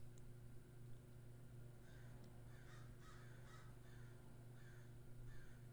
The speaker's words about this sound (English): Yeah, those crows.